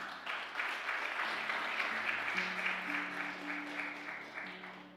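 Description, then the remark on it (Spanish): An audience breaks into loud, sustained applause, a dense wash of clapping that holds steady throughout, with faint low sustained tones underneath. “el otro aplauso fuerte a papá.”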